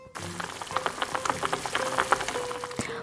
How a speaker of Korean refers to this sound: 보글보글 끓이는 소리가 났더니, 완성!